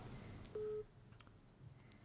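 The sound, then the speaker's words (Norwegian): A single short burst of an outgoing call's ringing tone, a steady mid-pitched electronic beep standing out clearly over a low background hum, followed by quiet. “Tok han telefonen, da? Eh, ja, han tok telefonen.”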